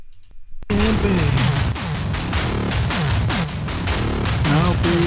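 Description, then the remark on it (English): After a brief near-silent moment, a loud, dense analog percussion synthesizer track played on a DFAM kicks in, controlled with LFOs, envelopes, oscillators and a Make Noise Maths module, with driving repeated hits and sweeping, bending pitched tones layered throughout. “But um, using LFOs and envelopes and oscillators is, is another way to control the DFAM and then that's where the make noise math comes in and then you can hear what it's going to sound like here so we're going to play the next track right now”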